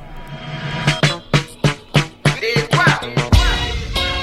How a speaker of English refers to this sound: Ignition sequence starts. 6, 5, 4, 3, 2, 1, 0. All engine running. Liftoff. We have a liftoff.